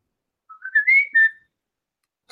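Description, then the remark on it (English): A person whistles a short rising tune, a few clear pure notes sliding upward then holding briefly, fairly loud against silence, ending within about a second. “I want to hear your best whistling.”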